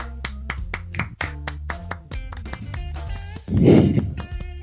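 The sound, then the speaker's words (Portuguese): A round of hand claps for the Green Bay Packers franchise on its anniversary: sharp, irregular smacks over a steady tonal musical bed, swelling into a louder, denser burst of applause near the end. No one speaks. “Uma salva de palmas para essa franquia.”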